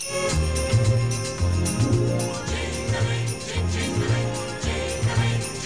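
A festive orchestral song intro plays at full volume, with a bouncy bass line under bright, steadily jingling sleigh bells and no voices.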